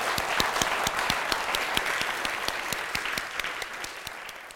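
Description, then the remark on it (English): An audience claps steadily for several seconds at the end of a debate, thanking the speakers, a dense patter of many hands with a few sharper individual claps standing out, sustained and fairly loud before tapering slightly at the end. “Um, but can you join me in thanking our magnificent, not at all annoying, wonderful people?”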